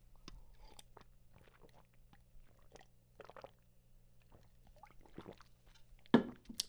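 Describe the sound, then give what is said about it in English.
Chewing leftover food with wet, crunchy bites and soft smacking, irregular mouth noises over several seconds, ending in a sharper crunch. No talking. “It's kind of like good leftover food for me.”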